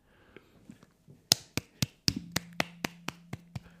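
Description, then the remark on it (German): A single person claps their hands about ten times in a quick, steady rhythm, each clap sharp and crisp, with a low steady hum underneath the later claps. “Ich klatsche oh. selber mal.”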